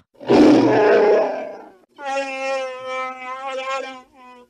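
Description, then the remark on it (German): A person imitates the Wookie-like growly vocalising their corgi makes: first a loud, raspy roar, then a long, wavering, whiny groan with a strong tonal moan, with no other talk. “Ich meine, ja, unser Hund macht halt nur Wuff und er, lustigerweise, wo wir gerade darüber reden, also ich, ähm, macht mein Hund immer äh, Wookie-Geräusche, also so.”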